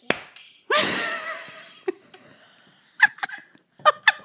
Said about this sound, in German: Das war, das war ein Panikklatschen. ich hab's gesehen. Das war auch so richtig.